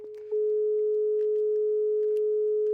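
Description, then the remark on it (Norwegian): A telephone busy signal tone sounds over the line, a steady, clear electronic hum holding at an even level for a few seconds, with faint clicks and line noise underneath. “Faen, det er opptatt!”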